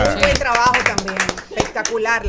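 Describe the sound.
Steady rhythmic clapping, a quick even beat of sharp claps given as applause for Venezuela, mixed with loud voices cheering and calling out over it throughout.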